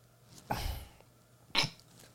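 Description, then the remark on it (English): Two soft, raspy snores from a woman about a second apart, each a short breathy rush of noise, faint with nothing else around them. “Yeah, she's snoring. Yeah, she always snores, bro.”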